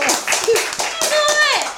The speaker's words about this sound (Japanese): 拍手でお迎えくださいお願いします